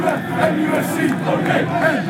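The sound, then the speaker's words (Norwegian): A large crowd of football fans in England, turned against their club's owners and storming the pitch, shouting and chanting together in a dense, continuous roar of angry voices, steady and loud throughout with overlapping yells rising and falling. “Og, og, fotballbaner i England har jo sett det meste, men det var altså fans som stormet øh, banen.”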